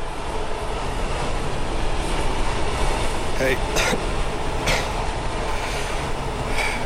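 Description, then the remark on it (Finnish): A passenger train speeds along the rails with a dense, continuous low roar, punctuated by a few brief metallic clanks; a single short spoken word cuts in over the noise. “Ennen pitkää tämä juna kyllä pysähtyy.”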